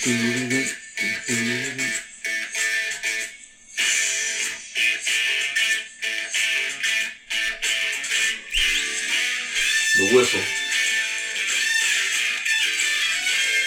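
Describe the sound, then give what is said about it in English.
A bright, shrill whistle opens a 1973 song recording, running steadily and loudly through the dense music, with deeper sliding tones breaking in briefly near the start and again around the middle. “It was all, you know, when I heard this, I was like, this is the whistle.”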